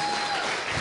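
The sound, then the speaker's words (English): A brief burst of audience applause welcoming a guest, a dense crackle of many hands clapping together at a steady, fairly loud level with no voices standing out. “But uh, in the meantime, why don't you put your hands together and welcome Izzy DeGiacini to the home.”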